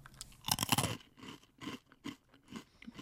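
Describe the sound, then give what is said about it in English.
Crisp crunching of a snack resembling a smashed tater tot being chewed, starting with one loud bite and continuing as a series of softer rhythmic chews over a few seconds, with no talking. “It's definitely crunchy.”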